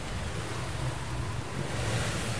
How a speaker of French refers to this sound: Il s'emballe parce que le vent monte. Et ça me déplaît pas ça parce que aussi longtemps qu'il y a du vent jusqu'au poteau noir, et eh ben je sais que je perdrai pas encore plus sur la flotte.